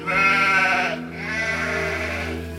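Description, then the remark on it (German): A sheep bleats twice, two loud, wavering calls, the second drawn out longer after a brief pause, with no voices present. “Nur Hirten und ihre Schafe werden erwähnt.”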